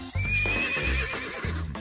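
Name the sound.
horse neighing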